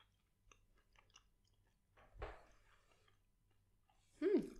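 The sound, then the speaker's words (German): Crunching bite into food tasting of dill, followed by soft chewing and small mouth clicks, with a short hum of a voice at the end. “Ähm, ich muss gerade nochmal einmal richtig reinbeißen.”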